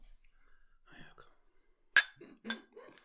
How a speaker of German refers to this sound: Können wir anstoßen, oder? Okay.